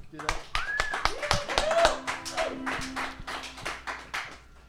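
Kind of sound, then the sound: crowd, people clapping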